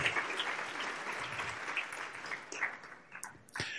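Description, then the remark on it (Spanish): A large church audience claps together in sustained, dense applause welcoming first-time visitors, then thins and fades out near the end with a few scattered claps. “Nos damos un aplauso a todos.”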